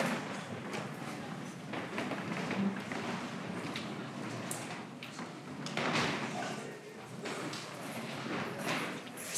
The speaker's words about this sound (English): So, real quick, I invite you just to put your chairs back to where they were, get back in rows, and I'll give us some instruction.